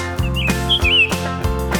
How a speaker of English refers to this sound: Right, the birds go as they fly around the farm.